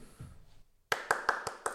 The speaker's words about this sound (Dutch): Om het toch even te noemen. Applaus voor jezelf.